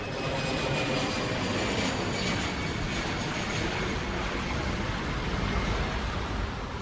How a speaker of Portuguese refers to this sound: Durante a desaceleração, é comum ouvirmos os assobios da mudança de regime dos motores. Uma bela sinfonia.